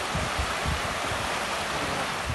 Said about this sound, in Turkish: İzmir'de akşam saatlerinde başlayan kuvvetli sağanak yağış hayatı felç etti. Başta Buca ve Karabağlar olmak üzere şehrin birçok ilçesinde yağmur suyu sele dönüştü. Alt geçitler suyla doldu. Trafikteki araçlar kuvvetle akan selin ortasında kaldı.